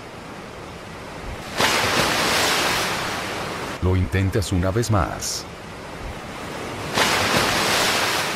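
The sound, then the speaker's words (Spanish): Waves crash onto the shore in two loud, broad surges of rushing surf, with a man's voice speaking briefly in the quieter stretch between them. “Te diriges al mar, y procedes a intentarlo.”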